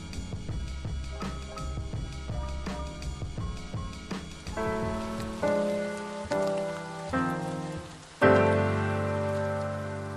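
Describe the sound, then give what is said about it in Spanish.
Steady rain patters with scattered sharp drips for several seconds. Then gentle music chords enter and swell over it, with a louder chord near the end. No voices. “Disfrutemos entonces de este momento, antes de que la lluvia nos espante a todos.”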